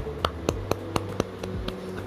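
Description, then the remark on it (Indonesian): A single pair of hands claps about eight times in a quick, steady rhythm. Each clap is sharp and crisp over a faint, constant low hum. “Di mana lagi kalau bukan di podcast mau cerita aja, mau cerita ya dengerin aja tepuk tangan.”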